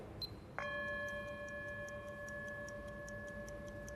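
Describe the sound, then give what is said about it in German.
A single gong strike marks the start of a 50-second time interval that participants must estimate, ringing out with a sharp onset and long, steady harmonic tones that sustain without fading, over a soft ticking clock in the background; no one speaks. “Sie werden das so machen, ich gebe den Startpunkt wieder vor, dann läuft das Intervall die Teilnehmer müssen ein Zeitintervall, das mit einem Gong beginnt, abschätzen.”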